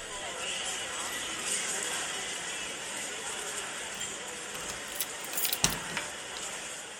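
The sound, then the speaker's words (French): Keys jingle and clink as a house key is taken, a brief metallic rattle over a steady background hiss, with one sharp clink standing out. “D'ailleurs, voici la clé. Vous irez voir vous-même. Bonne chance. Partie je prends la clé.”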